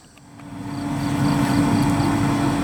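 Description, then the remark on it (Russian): A steady mechanical hum with a strong low drone from a water pump running continuously instead of switching off and on while filling an expansion tank, swelling slightly at first and then holding even and unbroken throughout. “Вот звук постоянно работающего насоса а практически ножом меня режет изнутри, потому что он так должен делать не должен.”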